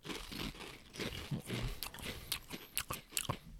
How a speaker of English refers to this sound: This is just gonna it's gonna be the grossest. This is just the sound like these are the loudest things to eat. Chips and popcorn.